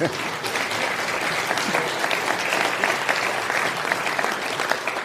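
A crowd applauds steadily throughout after mention of VfL Bochum's 3-0 win over Leverkusen securing survival in the league, a dense wash of clapping from many hands at a fairly strong, even level without breaks, with no one speaking clearly over it.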